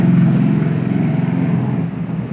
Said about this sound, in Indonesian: ada motor lewat